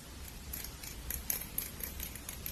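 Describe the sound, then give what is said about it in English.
Quiet, rapid snips of scissors cutting hair with a little comb, trimming the ends: a series of crisp metallic clicks in an uneven rhythm, with no talking. “And I will start with cutting your hair. Alright. And for that I will be using these scissors and this little comb.”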